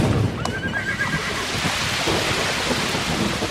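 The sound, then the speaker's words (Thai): A horse being whipped while pulling a cart whinnies once near the start, a short quavering neigh, over a steady wash of heavy rain and rumbling thunder that continue to the end. “แต่ชายคนนั้นก็ไม่ยอมหยุด ยังตีม้าและลากเกวียนต่อไปจนในที่สุดเกวียนก็ตกลงแม้จะตีม้าให้ม้านั้นใช้กำลังลากขึ้นมาอย่างไรก็ไม่ขยับขยื่นเลย”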